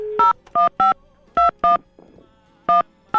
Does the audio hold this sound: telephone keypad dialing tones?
yes